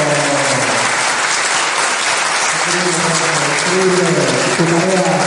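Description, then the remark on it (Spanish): Steady, loud audience applause fills the whole clip, a dense wash of many hands clapping, with faint voices murmuring and calling out underneath. “Un aplauso.”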